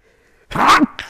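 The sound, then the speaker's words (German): A single loud sneeze bursts out after a moment of quiet, followed by a brief breathy sniff or exhale. “Gesundheit.”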